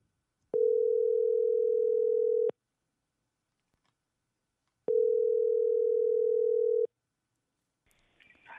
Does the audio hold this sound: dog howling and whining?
no